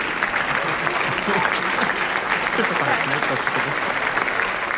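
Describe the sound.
A large audience claps loudly and continuously in a standing ovation for Céline Sciamma, who was presenting Portrait de la jeune fille en feu, a dense, steady roar of many hands that holds at full strength throughout, with faint crowd voices blended in; the ovation lasted about ten minutes.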